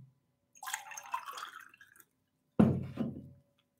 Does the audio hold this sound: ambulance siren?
no